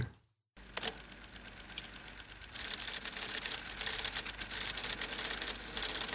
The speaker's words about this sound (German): Okay, also es ist eine Schreibmaschine und sie äh, tippt ultra schnell. Na, naja, nee, nee, nee. Das war ein Computer und der hat für ihn gedruckt.